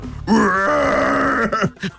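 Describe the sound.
A voice imitates a sea lion's cry with one long, strained, groaning bark that holds steady for over a second, then breaks into a few short, rough grunts.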